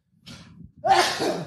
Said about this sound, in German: Gesundheit, Fuck, Alter.